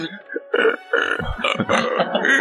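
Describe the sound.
A person vocally imitates a morning pigeon panting, producing a quick series of breathy, guttural huffs and throaty grunts in an uneven rhythm, fairly loud.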